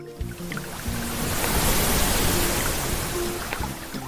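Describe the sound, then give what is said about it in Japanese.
A steady wash of ocean surf rolls in as a set of waves arrives, swelling to a full roar around the middle and easing slightly toward the end, with a low tonal hum beneath and no voices. “いつものね、はい、アウトからいいセットが来たんで、まあ、そろそろ行きましょうかということで。”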